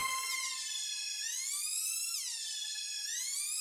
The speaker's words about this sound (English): So, you know, it just kind of sounds like an alarm almost, but that's all just delay coming off of that string note.